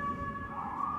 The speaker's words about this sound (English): apologies for the sirens.